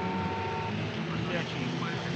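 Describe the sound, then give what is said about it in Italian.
Audio-game car and traffic sounds near the start of a car-driving game with traffic on the difficult curves: a steady synthetic engine drone with passing vehicle hums and a few tonal beeps, dense and fairly loud throughout. “Esatto, c'è un po' di traffico nelle curve difficili all'inizio del gioco.”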